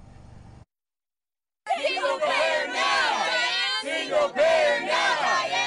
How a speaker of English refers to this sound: A small but energetic crowd of protesters, including several Bernie Sanders Democrats, shouted at Senator Dianne Feinstein Tuesday night, who was headlining a fundraiser for her Senate reelection race inside this home in Beverly Hills.